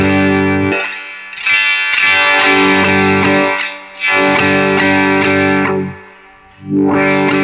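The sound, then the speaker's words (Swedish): A sustained, distorted synth tone repeatedly swept by high-pass and low-pass filters, its highs and lows cut away and opened back up in slow waves, so the sound thins out and fills in again several times. No talking. “Nej, det här var higher pass och low pass, förlåt.”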